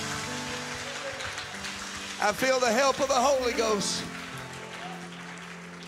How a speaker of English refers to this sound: Clap your hands to Him if you believe that today.